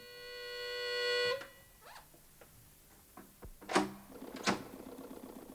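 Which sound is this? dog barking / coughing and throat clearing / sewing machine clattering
sewing machine clattering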